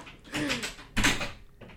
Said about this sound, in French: Et euh, mon deuxième conseil musical, forcément, c'est …. Mais faites-le oh, entrer.